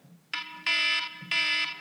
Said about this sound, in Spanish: Oh, escucha, escucho la alarma, escucho la alarma.